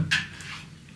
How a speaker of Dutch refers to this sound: dat was de hond